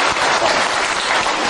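An audience at a training seminar breaks into sustained applause, a dense, steady clatter of many hands clapping at an even loudness throughout, with no voices heard above it.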